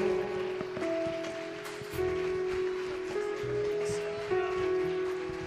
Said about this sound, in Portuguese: Melhor esse aplauso com glória a Deus.